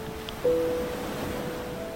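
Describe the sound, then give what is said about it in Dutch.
Foaming ocean waves wash onto the shore beside a section of wall standing in the water, in a steady, moderately loud hiss of surf that swells briefly early on, with a faint constant hum beneath and no voices. “Ik loop een beetje te verdwalen tussen de schuimende golven van de oceaan en het stuk muur in het water.”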